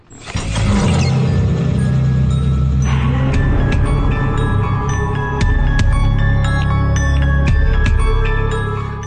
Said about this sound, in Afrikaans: dit was die vreesloos musiek wat ons altyd gebruik het met die eh, die hele vreesloos span storie